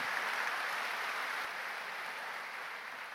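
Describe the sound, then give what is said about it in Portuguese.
A church audience applauds the Lord steadily, a dense wash of many hands clapping at an even level for a few seconds, with no voices standing out. “Quem pode dar um grande aplauso ao Senhor por essa verdade, esse princípio?”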